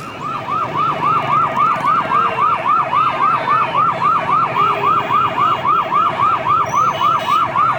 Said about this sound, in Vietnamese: Quý vị đang nghe thấy tiếng xe cấp cứu chạy vội vã trên phố Ở tập trước khi kết thúc phần 1 của tập phim Người đàn bà bí ẩn. Tiếng xe cấp cứu vang lên ngay sau vụ tai nạn.